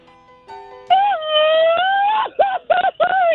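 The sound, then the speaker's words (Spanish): A loud, sustained Mexican grito from Michoacán, given by a man: a long wavering high-pitched yell that then breaks into several short rhythmic yips, with faint tonal sounds briefly before it begins. “No, ya con ese gritito que se aventó, ahorita ya flameó los calzones.”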